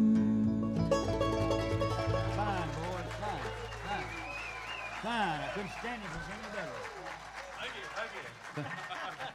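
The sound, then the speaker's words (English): A song's final chord fades into a steady wash of audience applause for the band, with voices calling and whooping over the clapping for several seconds. “Give the boys a big hand.”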